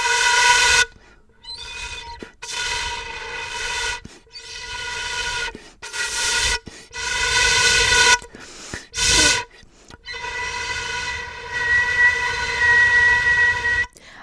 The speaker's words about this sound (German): wenn ich jetzt diese Ney diese, diese Längsflöten, diese Bambusflöten äh, verwenden würde